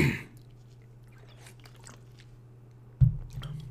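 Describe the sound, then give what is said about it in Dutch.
Someone takes a sip of water: faint wet mouth clicks and a swallow over a steady low hum, ending with a louder bump. “Ik neem even een slokje water hoor, een momentje.”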